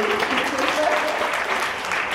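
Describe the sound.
Sustained audience applause, a dense steady patter of many hands clapping at an even loudness throughout, with a faint voice briefly audible beneath it.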